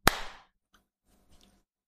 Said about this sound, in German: So. Okay, warte, warte, war, war das synchron? Es geht 3, 2, 1, klatsch und dann klatschen wir, ne? Oder Klar, auf 3, 2, 1, klatsch.